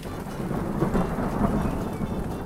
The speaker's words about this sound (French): Enfin, l'électricité du nuage est donc attiré par la Terre comme un aimant et l'éclair se déclenche. C'est la foudre, souvent accompagnée d'un bruit tonitruant et d'une forte pluie.